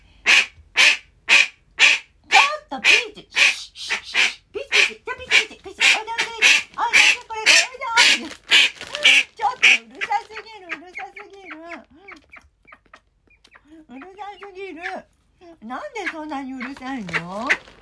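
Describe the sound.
A domestic duck named Peach quacks loudly and rapidly, a steady string of harsh calls for several seconds, then a woman begins talking as a few quacks trail off.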